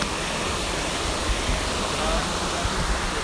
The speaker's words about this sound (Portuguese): Dá pra pegar a cascata tranquilão.